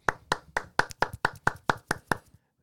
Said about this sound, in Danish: Stærk klapsalve, tak for det, gutter.